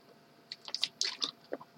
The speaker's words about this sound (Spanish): Voy a pegar un traguito de agua a vuestra salud